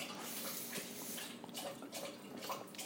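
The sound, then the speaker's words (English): Wet, rhythmic lapping and splashing of water as Kona the dog drinks from his water bowl, steady for a few seconds, with soft slurps repeating in quick succession and no voices. “Kona's is drinking out of his water bowl.”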